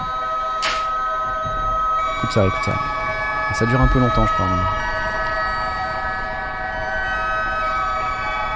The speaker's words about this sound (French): Ruina Versio, stéréo distorsion. Ruina, donc c'est leur. Euh, c'est leur disto, c'est leur méga euh, disto, hein.